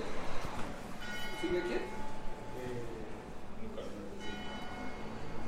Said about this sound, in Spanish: Las campanas. ¿Qué tal si oyen las campanas con este micrófono?